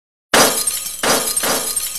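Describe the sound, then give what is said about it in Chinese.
After a brief silence, a storage shelf holding thousands of assorted soul-potion bottles is knocked over: a loud crash of many glass bottles shattering bursts out, followed by two more waves of breaking and tinkling glass as the clatter continues without voices. “摔倒时撞了身后的储藏架，那上面摆放着成千上万各式各样的灵魂药剂。”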